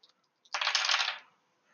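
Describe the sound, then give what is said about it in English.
Eight dice clatter onto a hard surface in one bright, rattling burst lasting about half a second, preceded by a couple of faint clicks, fairly loud with no talking. “There's eight dice right there.”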